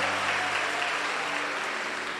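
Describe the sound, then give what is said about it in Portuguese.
Steady applause at a church gathering in Angelim for members of the Assembleia de Deus church, a dense rush of many hands clapping at a fairly loud, even level for a couple of seconds, with a faint low hum beneath. “Uma salva de palmas para os nossos irmãos da Assembleia de Deus.”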